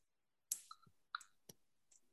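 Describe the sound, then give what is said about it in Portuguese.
Several sharp plastic clicks and snaps at an irregular pace as plastic building bricks are pressed together and click into place, quiet with no talking. “O plástico é. Faz, faz, faz clique.”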